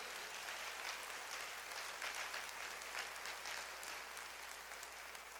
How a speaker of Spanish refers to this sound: Si tú crees que somos una gran familia, dale palmas al Rey, por favor. Apláudele fuerte.